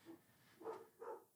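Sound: dog barking in background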